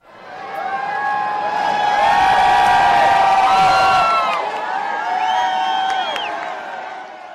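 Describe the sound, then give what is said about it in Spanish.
A crowd of supporters cheers and whoops continuously, with excited shouts rising over the din and some applause mixed in, loud and sustained throughout, as the presidential helicopter Marine One flies over Washington at dusk. “así lo quiso poner en escena anoche al salir del centro médico caminando hacia el helicóptero presidencial, el Marine One, que surcó los cielos de Washington al atardecer entre aplausos de sus seguidores.”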